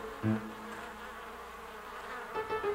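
Bees buzz in a low, steady drone, starting with a brief louder burst and swelling again near the end, with no voices.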